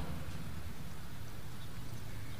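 Steady, continuous water noise, a dense wash of rushing and splashing with a low rumble underneath, like flowing water at a waterside. No voices.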